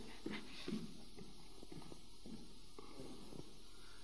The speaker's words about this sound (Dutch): Ik zal naar je toe lopen, want ik heb de microfoon in hand.